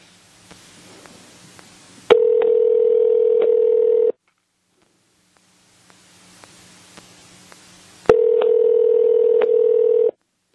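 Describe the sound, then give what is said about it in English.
A phone line rings out on a call to a randomly typed phone number: two long, steady ringback tones, each about two seconds, separated by stretches of faint line hiss and clicks. No one speaks. “Ring, ring, ring, ring, ring.”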